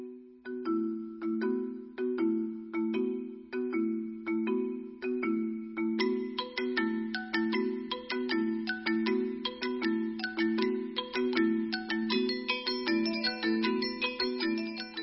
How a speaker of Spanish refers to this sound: voy a leer el cuento intitulado El papel de los ojos y la música que acompañará al relato es tomada de la fonoteca de radioeducación dentro de la música tradicional china.